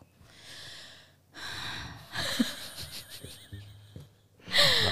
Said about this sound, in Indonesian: Baru ngomong gitu aja udah ngos-ngosan dia. Oh, penyanyi loh padahal dia ini.